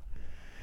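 A single short sneeze, a breathy, noisy burst of air that lasts well under a second, with no talking around it.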